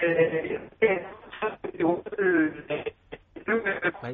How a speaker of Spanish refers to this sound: porque se te estaba escuchando mal mientras hablábamos por teléfono. Vamos a ver si ahora se te escucha mejor.